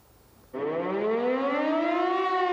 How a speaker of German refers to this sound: Lautes Getöse und dieses Mal nicht nur per Sirene. Der Probealarm um 11 Uhr sollte viele Handys schrillen lassen.